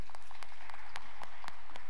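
A crowd applauding, a dense wash of many hands clapping at once with a few sharper claps standing out, steady and fairly loud with no voices over it.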